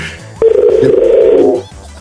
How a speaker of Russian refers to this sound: Что гудки срываются.